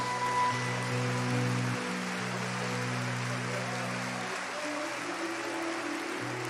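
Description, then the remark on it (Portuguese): An audience claps steadily in praise of the Lord, a dense, continuous crackle of applause that stays fairly even in loudness, with low sustained keyboard or organ notes humming underneath. “Se você puder engrandecer ao Senhor, com um lindo aplauso, faça.”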